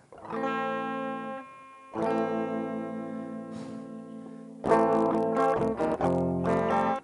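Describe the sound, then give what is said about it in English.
Distorted electric guitar chords ring out in three loud strummed bursts on a guitar that was just dropped and only partly works, each sustaining with a buzzy, effect-heavy tone before the next, the final section choppier with quick restrikes. No voices. “love how I dropped my guitar right before I started to play. Still works to, to a degree.”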